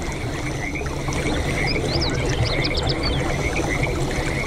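A dense chorus of frogs croaking and chirping near water, with high trilling calls repeating over a steady, rushing wet background that stays constant throughout.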